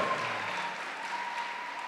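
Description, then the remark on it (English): A church audience claps steadily for two seconds to welcome guests from Johannesburg, the dense patter of many hands blending into an even wash of applause at a moderate, constant level. “And we want to welcome the guests from Johannesburg. Clap for them.”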